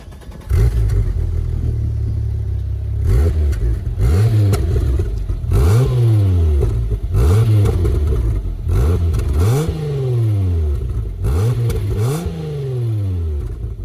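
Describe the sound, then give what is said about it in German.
A Volkswagen car engine revs repeatedly, its pitch climbing and dropping in a series of arching sweeps over a steady low rumble, loud throughout with no talking. “Folge 28 mit einem VW, so viel können wir schon mal sagen.”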